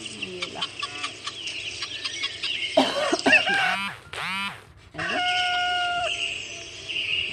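A rooster crows in the morning, a long, rising and falling call in the middle, with chirping birds and clucking fowl filling the background before and after. No one speaks.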